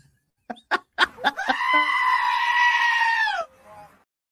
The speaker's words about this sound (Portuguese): Eu me amarro nesse bode berrador aqui, cara. Tipo assim, que momento para você filmar o bode?